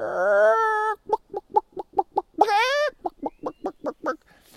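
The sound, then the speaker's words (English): A person imitates chickens: a drawn-out squawk, then a quick, steady run of short clucks, another stretched squawk, and more rhythmic clucks, loud; imitating 15 chickens running around and cackling. “So Joey shut the gates, and sure enough, those 15 chickens were running around and singing and cackling, and the rooster, he was, er, er, er, and the chickens were going,”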